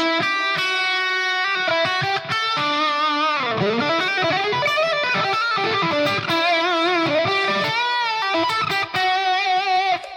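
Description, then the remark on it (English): A distorted electric guitar plays a continuous improvised line over shifting chords, with bends and quick runs, loud throughout with no talking, combining scale, chord and arpeggio ideas as the chords go by. “and utilizing all of those ideas at once scale, the chord, the arpeggio, the logic, the theoretical logic, all of these things at the same time as these chords are going by.”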